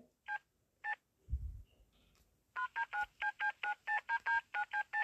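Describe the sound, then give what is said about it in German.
Telephone keypad dialing tones as someone presses keys on the mayor's phone to find out whom he last called: two separate beeps, a brief low thump, then a quick, steady run of about a dozen dual-tone beeps, clear with no voices. “Tüt, tüt, tüt, tüt, tüt, tüt. Tüt, tüt. Man hört nur noch Tüt.”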